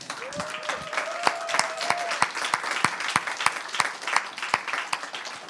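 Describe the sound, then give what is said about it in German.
An audience breaks into steady applause to praise Jesus, many hands clapping in a dense, crackling wash with sharper individual claps standing out. A brief sustained tone rises early on, and the applause continues unbroken. “Lass uns ihm einen Applaus geben, einen ordentlichen.”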